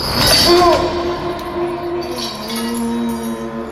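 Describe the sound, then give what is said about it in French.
A burst of metallic clinking and rattling as chains lying on the floor of a small room start to move rings out at the start, then fades beneath a steady, low droning tone that carries on to the end. “Les chaînes se sont mises à bouger et mon cœur s'est arrêté.”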